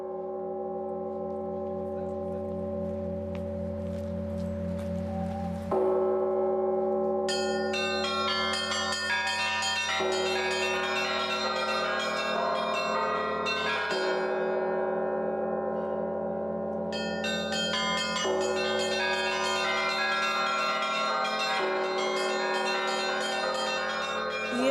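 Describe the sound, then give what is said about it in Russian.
Church bells of St Isaac's Cathedral, heard from a park bench beside it, peal continuously and loudly, several bells of different pitches overlapping in a rich, sustained ringing with dense ringing overtones, swelling in waves as new strikes come in. “В общем, начался колокольный звон.”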